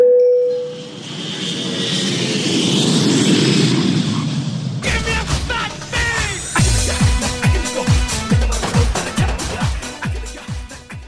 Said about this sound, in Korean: 자 그럼 우리 비행기 이륙합니다. 갑니다. Let's get it!